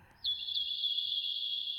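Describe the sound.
A high, shrill stream of sandpiper-like cheeping and chirping, the opening of a chant, starts abruptly and runs on steadily without pause, fairly loud, with no voices.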